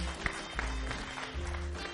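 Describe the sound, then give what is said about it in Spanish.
An audience claps steadily throughout, welcoming a group that is about to tell a story. A dense crackle of many hands, with a few sharper individual claps standing out. The applause stays fairly even in level. “Un aplauso para el colectivo la que nos va a contar El ratón.”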